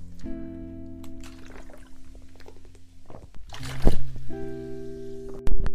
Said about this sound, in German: Ey, ist es komisch, dass ich Wasser trinke während einer Episode?